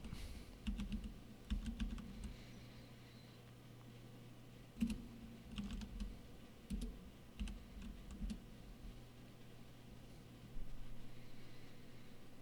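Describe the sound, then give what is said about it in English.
Keys clatter on a computer keyboard in short irregular bursts of clicks, fairly quiet, with a steady low hum underneath and pauses between flurries of typing. “Because I know people enjoy the keyboard sounds.”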